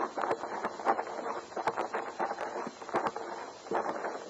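Horses' hooves clip-clop in an uneven, overlapping rhythm, a dozen or so sharp knocks against a steady rushing background of wind-like noise, moderately loud, with no talking.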